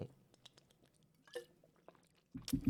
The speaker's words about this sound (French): Attendez, il faut que je boive un verre.